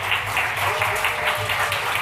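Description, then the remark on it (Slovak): Loud, sustained applause from an audience as the guests are sent off before the next category, a dense steady patter of many hands clapping with no break, filling the whole moment without any voices on top. “A za búrlivého potlesku tu mám napísané, že máte Ideme. odkráčať, aby sme prešli v ďalšej kategórii.”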